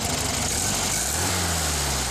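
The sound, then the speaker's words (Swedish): A Volkswagen Beetle's air-cooled boxer-four engine runs steadily at idle, a low, even rumble with a faint buzzing rattle layered over it, continuous throughout with no voices. “Mamma hade en Volkswagen Bubbla och styvfarsan hade en Saab 96. Man behövde aldrig titta ut genom fönstret för att gissa vem det var som kom hem.”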